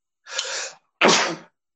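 A single loud sneeze: a sharp breathy intake followed a beat later by an explosive burst of air. No one speaks.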